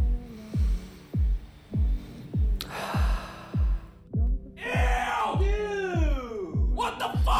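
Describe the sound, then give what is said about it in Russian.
Heavy, loud breaths blown straight into a microphone, coming in a steady rhythm of about ten rough, throbbing puffs, with a few louder hissing exhales and gasps toward the end. “Я перевожу его дыхание, от которого сейчас э, наш микрофон придется под замену отправлять.”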